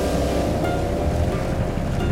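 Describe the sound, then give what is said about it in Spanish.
A boat engine drones loudly and steadily as the boat accelerates across the sea, over the rush of ocean water and wind, continuous with no voices. “Enciende el motor y acelera hasta donde los objetos se estrellan contra el mar.”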